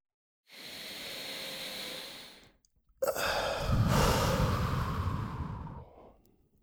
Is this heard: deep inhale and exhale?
yes